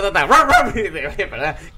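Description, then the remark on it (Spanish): A man imitates audience laughter as dog-like barks during a camera rehearsal without an audience, letting out a few quick bark-like yelps that blend into laughter, loud and rhythmic over less than two seconds. “El tío tenía minutadas las risas del público los hacía como ladridos.”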